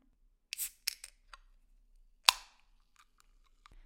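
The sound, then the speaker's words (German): A Monster energy drink can is opened: a few sharp metallic clicks and a short hiss, then one loud crisp pop with a brief fizzing tail, followed by faint ticking. No one speaks. “Kenner und Kennerinnen kennen den Sound ist der Moment der sich öffnenden Monsterdose.”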